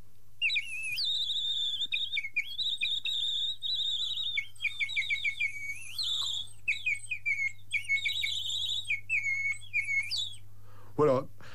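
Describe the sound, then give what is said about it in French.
A clay tubular water whistle, known as a nightingale, warbles in bright, bubbling trills, rising and falling in quick runs for about ten seconds, loud, with a low steady hum underneath; the water inside rapidly shifts the pitch as it is blown. “Voilà, donc euh, les sifflets à eau, bien avant d'être en plastique, bah, depuis quelques siècles, ça enchantait effectivement tous les enfants.”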